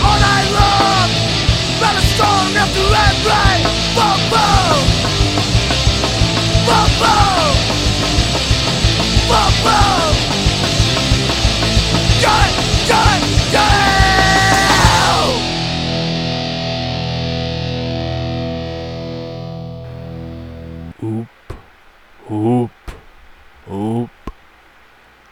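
Loud, dense rock music with heavily distorted guitars and harsh screamed vocals, which thins out and fades after about fifteen seconds, ending with a few isolated bursts of noise.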